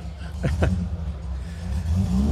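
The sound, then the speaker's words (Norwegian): An air-cooled four-cylinder car engine idles with a steady low rumble, with two quick rising revs early on, then the drone thickens and grows slightly louder toward the end. “Herlig lyd i fireren.”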